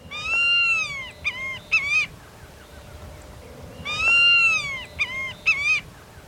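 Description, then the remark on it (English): A White-tailed Hawk, a large bird of prey, calls twice on the Texas coastal plain, each bout a drawn-out, slightly wavering cry followed by a few short clipped notes, clear above a faint steady background hum. “White-tailed Hawks on the Texas Coastal Plain”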